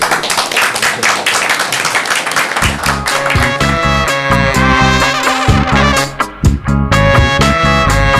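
Loud hand clapping from a small group, applause for the tennis player 'el Peque' after his victory, bursts out at once, then a bright musical jingle with a heavy bass enters and plays over the continuing applause.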